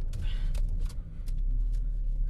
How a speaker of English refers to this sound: We are currently backing up the car to get on the road.